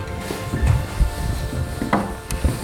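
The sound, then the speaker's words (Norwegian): Footsteps of people walking on an old wooden floor at Oscarshall, a run of soft, uneven thuds with faint creaks, moderately loud, with no voices. “Og for noen flotte gulv og dører og lyden når vi går her.”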